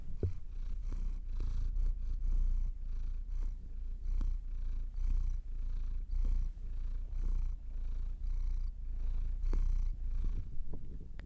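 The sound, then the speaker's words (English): A cat purring, a steady low rumble pulsing in a regular rhythm of breaths for the whole stretch, with no voices over it. “Here we go, ASMR.”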